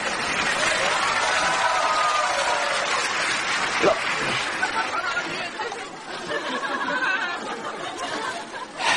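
An audience applauds steadily for several seconds to welcome a band onto the stage, a dense wash of clapping mixed with cheers, shouts and crowd chatter that stays loud throughout before dipping slightly and swelling again at the end.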